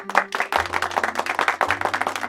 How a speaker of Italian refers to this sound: Un bel applauso.